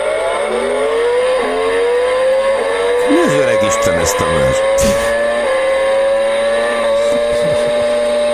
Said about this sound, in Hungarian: Jó, még egyszer, nehogy lefulladjon, és akkor most rányomok a gázra.